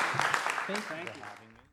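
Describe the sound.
Audience applause for two panel speakers at a writers' conference, a dense crackling patter of many hands, with voices rising over it partway through before the clapping gradually fades out.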